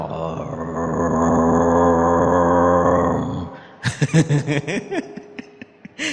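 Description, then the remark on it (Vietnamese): A deep, steady mantra tone chanted by Tantric Buddhist practitioners, rich in overtones, holds for about three and a half seconds, then breaks off into short, choppy bursts of laughter-like vocal sounds. “cái người phật tông họ tạo cái cái âm thanh đó họ được xem như đó là âm thanh của vũ trụ nó gần như một tiếng rầm của sư tử nó không có vướng gì mà nó động ở khắp nơi trong vũ trụ này”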